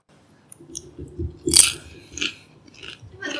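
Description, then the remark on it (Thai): Crisp crunching as someone bites and chews a chili snack, with a sharp loud bite in the middle followed by several smaller crackly chews; no talking. “เป็นไงบ้างรสชาติก็ รสชาติก็เข้ม เข้มดี มีทุกรส แต่ไม่ค่อยเผ็ดเท่าไหร่ แต่จะเข้มมากกว่าเคี้ยวพริกยัง”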